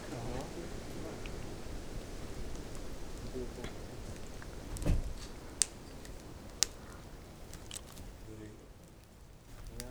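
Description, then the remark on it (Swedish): A steady, soft rush of wind moving through trees fills the whole stretch, broad and even, with a few sharp little clicks or snaps standing out near the middle. “Allt vi hör är vindens brus i träden”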